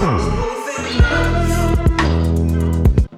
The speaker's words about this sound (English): And I reamped the guitar a couple of times to make it sound like this.